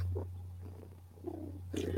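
A female cat purrs softly and steadily, a continuous low rumble that swells slightly every second or so with each breath, and no one speaks.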